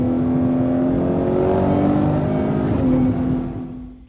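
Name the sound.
sports car engine revving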